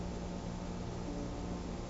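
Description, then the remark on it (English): A steady, continuous humming beat of radar equipment running night and day, heard from tents at about 3 o'clock in the morning, a low droning tone holding an even level throughout with no voices or breaks. “If you're awake, you can hear the radar going all the time, night and day, that steady humming beat.”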